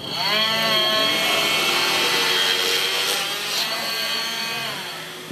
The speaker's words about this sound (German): Während die Säge da gerade durch die Schädeldecke fährt,